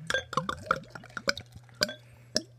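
Beer poured into a glass from a bottle, a quick irregular run of bright glugs and glassy clinks over a steady low hum, with no one talking.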